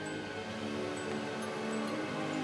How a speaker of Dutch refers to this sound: Staat die airco alweer aan? Nou, nee, dus zet hem even aan.